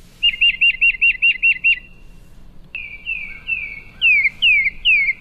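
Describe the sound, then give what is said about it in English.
Tufted titmouse calls, a quick run of about eight bright, clear notes, then a pause before a longer tone and three loud downslurred whistles, with no talking. “the tufted titmouse.”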